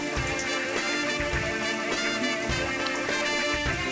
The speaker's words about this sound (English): Oh, let me turn the shower off. Hold on.